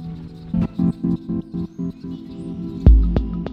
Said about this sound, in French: Le cardinal rouge. Cardinalis, cardinalis. C'est beau. c'est comme un boomerang.